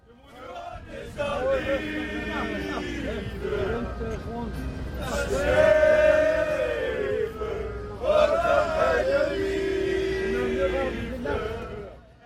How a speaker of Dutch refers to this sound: En, en, dit, supporters in de bus na een nederlaag. Ja, dit, eh, dit, dit fragmentje heb ik opge, opgenomen